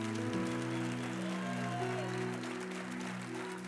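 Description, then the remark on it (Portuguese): An audience applauds the Lord for his goodness, with dense, sustained clapping over a held keyboard or organ chord. No one speaks. “Quem pode aplaudir o Senhor pela bondade dele?”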